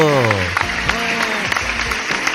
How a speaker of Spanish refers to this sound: Ella ha recorrido un largo camino para estar con nosotros, así que, por favor, eh, súmense a esta bienvenida allí, en sus madrigueras. Eh, levanten sus patas, garras, alas y aletas para darle un aplauso a Flora la Flamenca flamenco.